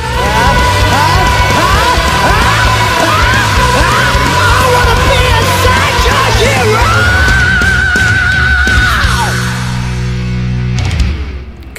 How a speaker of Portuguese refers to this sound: Cara, esse finalzinho aí, cara, sabe? Sabe esse finalzinho que dá esse gritinho? Ah, dá um arrepio do caralho, velho.